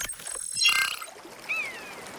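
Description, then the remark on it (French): Steady, rushing flow of a river out in nature in the Orbiel valley near Carcassonne, France, fills the scene at moderate volume, with a brief high chirp, like a bird call, rising above it partway through. No one speaks. “Euh, on est dans la nature, il y a une rivière, c'est très joli, mais on est où exactement C'est dans la vallée de l'Orbiel.”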